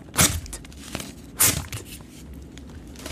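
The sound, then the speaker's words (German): Two short, sharp ripping bursts like paper being torn, made by a trick with a ten banknote (Zehnernote) that imitates tearing without actually tearing it, with faint rustling and small clicks in between. No one speaks. “Äh, also es tönt wie ein Papier zerreißen, aber ich zerreiße es nicht.”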